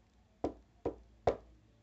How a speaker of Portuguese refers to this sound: Até que, em uma silenciosa noite de inverno, ambos escutaram leves batidas na porta.